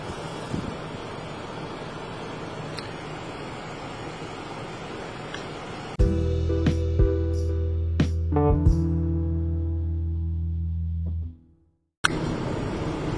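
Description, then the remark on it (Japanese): Steady road noise rumbles inside a car being driven to take a child to and from school club activities, broken midway by a louder, humming drone with a few clicks, then a brief silence before the rumble returns. No one speaks. “まあ、ちょっと騒音がするんであんまりちょっと車で、ポッドキャストもどうかとは思うんですけど、まあ、あの、なかなか面白いですね。”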